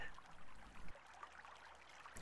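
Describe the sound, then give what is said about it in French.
Water in a stream flows and trickles steadily, a broad bubbling wash with a heavier gush at the start, no voices present. “Vous êtes assis au milieu du ruisseau.”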